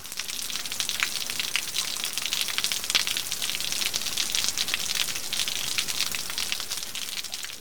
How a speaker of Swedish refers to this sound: Men det där ljudet är eh, bacon som steks. Ja, vad roligt! Eh, vilket inte alls har någonting med eh, vårregn att göra.